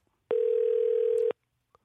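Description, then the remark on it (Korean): A single steady telephone dial tone as a radio show host places an outgoing call to a listener, one unbroken mid-pitched hum that starts and stops abruptly, with no voices around it. “3692님한테 전화 한번 걸어볼게요”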